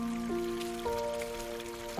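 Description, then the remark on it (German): Steady flowing water of a wide river in an autumn forest, with a soft, bubbling trickle throughout, fairly quiet, while sustained musical tones shift pitch a few times above it. No one speaks. “Nach einigen Schritten gelangt ihr an einen breiten Fluss.”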